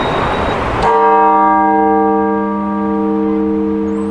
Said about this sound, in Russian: А вообще вот она должна быть вот соединена все три колокола. Вот. То есть он может как бы всеми тремя колоколами, и каждому по отдельности может. может левая или правая педаль? Вот левая. Сильнее.